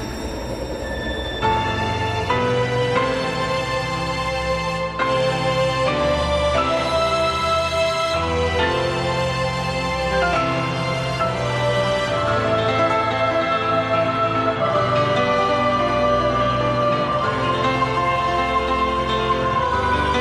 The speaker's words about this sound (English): Speaking of epic, we have to bring up the big match version of this theme. We've had some big match themes on the podcast every now and then. So let's hear how this sounds and then we'll talk about it a little bit.